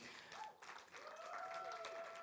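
An audience applauds steadily, a dense, continuous patter of many hands clapping, with a few faint whistles or cheering tones rising above the clapping toward the end.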